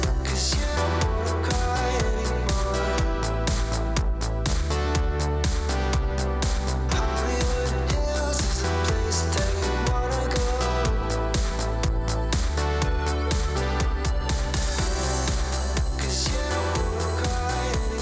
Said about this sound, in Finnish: Eli tämmöistä mun mielestä ihan ok, mitä tämmöistä tää on jo? Syna, disco, pop. Jotain, jotain tämmöistä niinku eh, melankolista eh, synthwave kasari diskopoppia. Aivan niinku muotokelpo kappale.